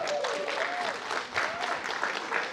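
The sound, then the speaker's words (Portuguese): An audience claps steadily in a dense, continuous patter of hands, moderately loud throughout, with a faint tonal whistle-like sound gliding over the applause. “Alguns não estão felizes porque estão com inveja aqui, porque não bateram palma, brincadeira.”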